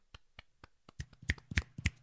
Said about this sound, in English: Just uh, you know, a little round of applause for Dont'a Hightower.